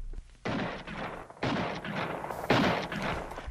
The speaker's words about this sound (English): Suddenly, I heard shots far ahead of me.